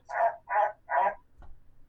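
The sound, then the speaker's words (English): A frog croaks three times in a steady rhythm, each croak a loud, throaty rasp lasting about a quarter second, followed by a faint low thump and quiet background. “Thank you, Frog.”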